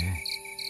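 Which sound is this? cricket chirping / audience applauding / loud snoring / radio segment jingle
cricket chirping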